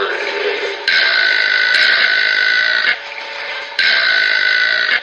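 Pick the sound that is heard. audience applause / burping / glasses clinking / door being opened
burping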